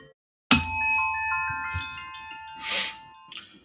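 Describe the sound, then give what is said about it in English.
A single bright bell ding strikes sharply and rings out with a long, shimmering decay, followed by a soft breathy noise near the end; no one speaks. “Oh, oh the, the the bell woke me up because just like the movie, I was sleeping through that whole thing.”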